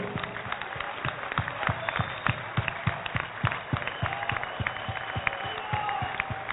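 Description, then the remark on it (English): An audience claps their hands to praise the Lord in a loose, steady rhythm, the many claps blending into a continuous patter with brighter beats standing out, accompanied by a faint murmur of voices. “Aclama o Senhor, bate palma para o Senhor.”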